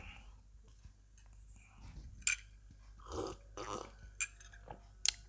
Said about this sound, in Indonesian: Dan karena ini adalah konten audio, jadi kalian tidak bisa melihat visualnya. Tapi kalian bisa mendengar saya makan kue bolu dan minum teh manis hangat. Ya. Baik, saya coba dulu ya.